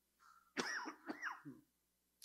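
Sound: coughing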